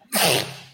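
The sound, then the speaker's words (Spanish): A single sharp sneeze bursts out, a sudden breathy blast that fades quickly with a short airy tail. “Salud. Salud.”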